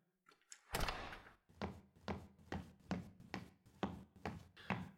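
A door opens with a loud clatter, followed by a steady series of hollow thumps and knocks as a delivered package holding a VCR and VHS tapes is handled and shifted about. No one speaks.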